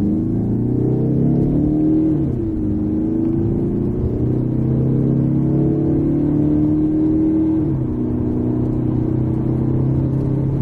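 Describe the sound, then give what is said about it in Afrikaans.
A 2.2 turbo diesel car engine pulls hard, its droning pitch climbing steadily, dipping twice at gear changes before rising again; the car changes gear only at 5000 rpm. Loud and continuous, with no voices. “Dis hoog vir 'n die diesel, maar sy 2.2 turbo diesel trek reg deur die toere strek lekker sterk”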